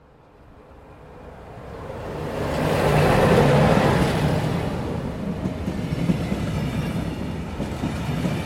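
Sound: train running on rails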